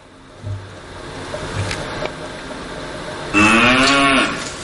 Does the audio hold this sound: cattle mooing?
yes